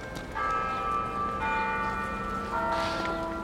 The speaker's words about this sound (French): Vous avez entendu les cloches sonner Eh bien, figurez-vous que les carillons tubulaires qui sonnent à midi